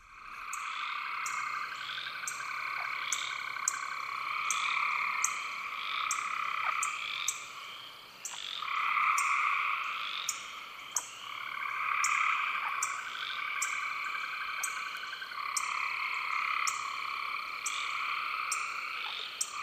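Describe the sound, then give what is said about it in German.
Dense chorus in a rainforest at the equator: frogs calling in overlapping layers, steady pulsing trills and croaks with high insect buzzing above, continuous and immersive, with no voices. “Hier kommt eine Aufnahme von Bernie Krause aus einem Regenwald am Äquator.”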